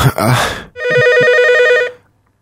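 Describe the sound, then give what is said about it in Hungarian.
A brief voice gives way to a loud telephone ringing: one sustained, trilling electronic ring lasting just over a second, then silence. “valaki hív, valaki, úristen, valaki hív.”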